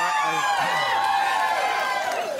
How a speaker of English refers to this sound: happy crowd. That's, these people are crazy.